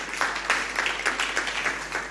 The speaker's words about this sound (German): Ja, du darfst gern Jesus einen Applaus geben.